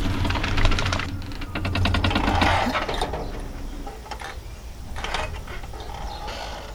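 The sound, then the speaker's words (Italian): Heavy mechanical clattering and ratcheting from a cable car mechanism as the car stops halfway along its run, suspended in a white cloud at around 1500 metres: dense rapid clicks over a low rumble that grind and slow, then fade into quieter creaks and a faint hum. “Ci mancava solo la sosta a metà corsa.”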